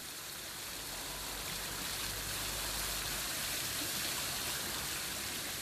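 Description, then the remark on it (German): Steady, continuous splashing of water from a public fountain at Weißenburger Platz in Heidhausen, Munich, a broad hissing wash with a soft low rumble underneath, holding an even level throughout with no voices. “Ein paar Minuten vom Münchner Glockenbachviertel entfernt treffen wir Josef Winkler am Weißenburger Platz in Heidhausen, direkt am plätschernden Brunnen.”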